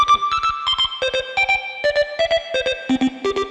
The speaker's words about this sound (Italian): Provo a rispondere con la tastiera del mio cellulare. Vai, vai, vai. Vai, provaci. Prova.